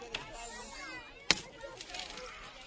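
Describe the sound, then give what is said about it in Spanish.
A single sharp, loud hammer knock from the foreman signals the lifting of the paso de misterio float of the Santo Cristo Cautivo, ringing out over a steady murmur of crowd noise, with a fainter tap just before it. “Y a golpe de martillo Aquí falta uno.”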